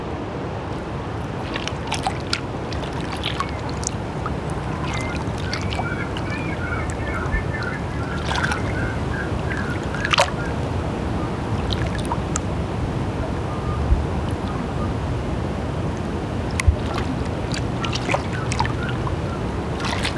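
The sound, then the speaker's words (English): Steady lapping and rippling water fills the scene with a soft continuous wash, while a few faint bird chirps and brief splashy clicks rise above it now and then. “Focus in on the smallest little details the rippling of the water, the calmness of the birds.”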